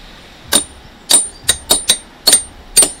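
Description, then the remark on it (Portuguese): A hammer strikes schist rock in a series of seven sharp, ringing blows at an uneven pace, fairly loud, with bright metallic overtones and no talking, splitting the schist where fossil animals are found, in Arouca. “Estão a passar 10 anos que, graças a estas marteladas quase sempre precisas e aos animais encontrados nas entranhas do xisto, nasceu o Geoparque de Aroca.”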